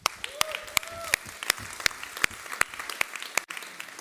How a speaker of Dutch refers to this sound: Applaus voor de techniek.